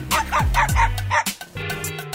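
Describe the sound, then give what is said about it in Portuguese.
A dog in front of the speaker's house barks at a passerby in a quick run of about five sharp, yappy barks, followed by a more drawn-out, whining bark. “O danado vinha com o au au dele.”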